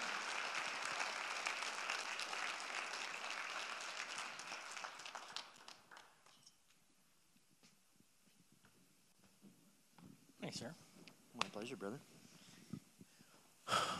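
Audience applause: a dense, steady patter of many hands clapping loudly for several seconds, then dropping away to near quiet with a few scattered sharp bursts and murmurs.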